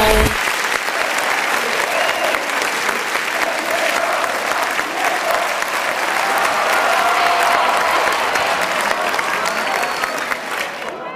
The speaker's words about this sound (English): Ladies and gentlemen, please let's give a warm welcome and round of applause for...